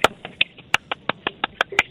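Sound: hands clapping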